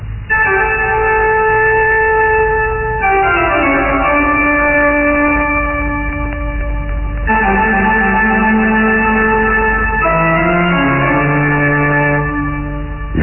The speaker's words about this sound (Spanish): La música sonó espectral y majestuosa. Los viejos muros del castillo parecían estremecerse con las notas arrancadas del viejo órgano.